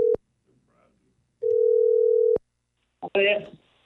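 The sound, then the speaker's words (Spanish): A steady electronic telephone ringback tone sounds twice, a brief beep and then a held tone of about a second, as a call is dialed again, before a voice answers over the line. “Vamos a marcarle ¿eh? otra vez, ¿ok? Ahí va.”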